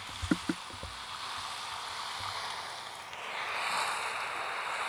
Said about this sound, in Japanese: なんか、なんかもう波とかさ、この、この音聞いて。これ波よ。波のさざめきの音して、これ聞こえてるこれ。